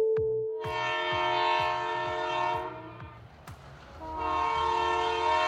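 A train horn blares loudly in two long sustained blasts with a brief fade between them, over the steady rumble and rhythmic clatter of a passing train at Halkalı train station in Istanbul.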